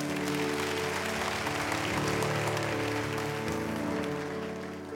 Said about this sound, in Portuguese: Você pode dar um aplauso, ficar de pé.